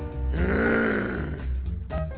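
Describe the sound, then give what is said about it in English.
A long, exaggerated belch rumbles loudly for about a second and a half, deep and croaky with a rising then falling tone, followed by a short grunt-like tail. “Ain't nothing but eat up six chickens, four pounds of hamburger, 26 donuts, drank a half a case of Budweiser, then she ran back and belched”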